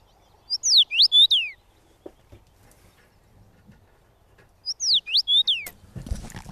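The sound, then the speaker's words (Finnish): A common rosefinch sings two short, clear whistled phrases, each of about four rising and falling slurred notes, separated by a few seconds of quiet, ending with a brief rustling noise. “Tuo muuten vielä pitää niin laittaa soimaan tuon punavarpusen”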